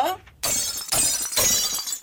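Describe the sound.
A short voice gives way to loud, bright crashing as an old cup is thrown and shatters on the floor, with the breakage coming in three sharp bursts.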